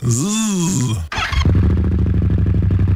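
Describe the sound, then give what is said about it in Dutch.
A motorcycle engine revs up and falls back in a brief rising and falling whine, then settles into a loud, steady pulsing idle rumble with no talking. “nee, als ik de tnre standaard heb, dan maakt hij al een prachtig geluid.”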